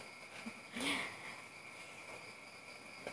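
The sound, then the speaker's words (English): Frogs croak in the background over a steady, buzzing night chorus, with one louder, brief call standing out early on. The sound is fairly quiet, and no one speaks. “I'm from English Department Kuningan University, class PBI 2B and sorry if there is a disturbing frog sound.”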